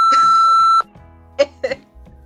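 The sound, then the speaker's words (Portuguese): A loud, steady censor beep holds one flat pitch for under a second and cuts off abruptly, followed by a few short, quieter vocal bursts like brief laughter. “Não, vou bipar.”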